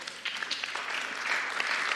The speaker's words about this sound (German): Gib dir doch mal einen Applaus.